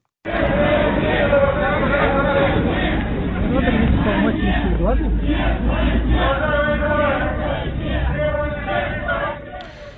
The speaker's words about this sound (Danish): Lyden her stammer fra en video, der er optaget af den russiske avis Novaya Gazeta og viser omkring 200 mennesker forsamlet i St. Petersborg, mens de råber nej til krig.